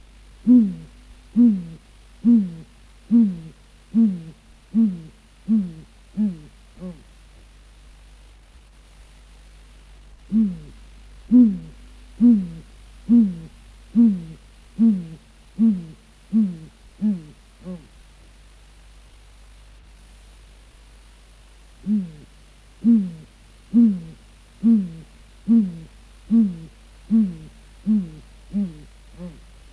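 Great grey owl hooting: three long series of deep, evenly spaced hoots, about eight to ten each, separated by short pauses, over a steady low hiss with no talking.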